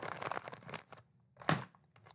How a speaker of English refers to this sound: I can't slap the envelope because it won't close and money will go flying out hold on.